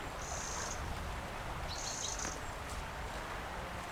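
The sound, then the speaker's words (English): A wren gives two short, dry rattling alarm calls, high-pitched and buzzy, separated by about a second, over a steady outdoor background hiss with no one talking, among ivy-covered willows in winter. “It's almost like an alarm call, so maybe he's a bit cross with me, or she.”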